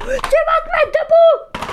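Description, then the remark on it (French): A single sharp click from a light switch flicking off, brief, near the start while a man talks over most of the moment. “Mais que je suis bête, je viens d'éteindre la lumière. C'est le petit bruit que vous avez entendu, un bruit de lumière.”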